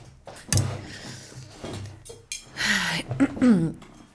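A chair is dragged forward across the floor: a sharp knock at the start, then a loud grinding scrape with a few squeaky bumps as it settles.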